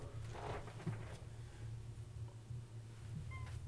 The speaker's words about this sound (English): Fucking cat.